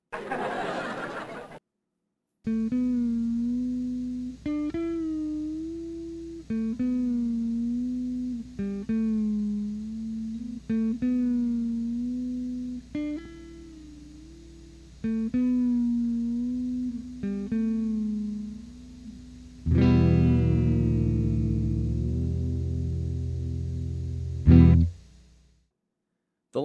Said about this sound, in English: here's my Squier Classic Vibe Jaguar equipped with Fender's floating tremolo